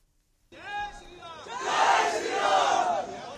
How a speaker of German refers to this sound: Jai Shri Ram rufen sie Heil dem Hindugott Lord Rama. Einige hundert werden es sein, die hier in Indiens Hauptstadt demonstrieren.